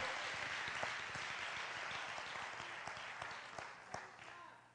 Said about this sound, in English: If you're thankful this morning that Jesus saw you, would you just give God a hand clap of praise this morning?